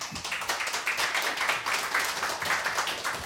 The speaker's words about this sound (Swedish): En liten applåd.